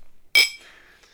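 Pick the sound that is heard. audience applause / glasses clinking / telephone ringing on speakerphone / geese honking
glasses clinking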